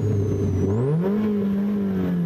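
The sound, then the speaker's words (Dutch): A car engine revs up steadily, its low harmonic drone climbing in pitch and then holding at a higher, loud, sustained roar with a faint high whine above it. The car has a heavy manual clutch, a fabric roof and no power steering. “Het ding maakt enorm veel herrie.”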